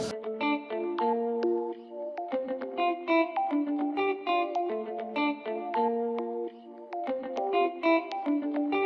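A song's instrumental intro plays alone: bright, effects-heavy electric guitar picking out a steady melodic riff with sustained harmonic notes and a chorused, echoing shimmer, no voices.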